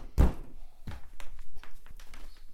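A suitcase is handled: a heavy thunk, then a second softer thud, followed by a scatter of light taps and knocks as it is moved and set down.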